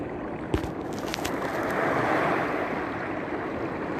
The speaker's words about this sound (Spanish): Respiramos profundamente, sentimos las olas del mar, cómo nos van apaciguando la mente, cómo nos van calmando y apaciguando la mente, la mente tranquila, serena,